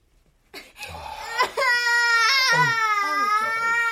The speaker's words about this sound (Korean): 아기가 우는데요.